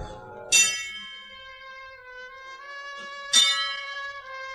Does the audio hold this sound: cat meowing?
no